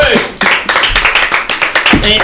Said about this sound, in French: On peut applaudir